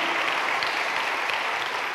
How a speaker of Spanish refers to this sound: Dale un aplauso a Cristo por eso, amado hermano.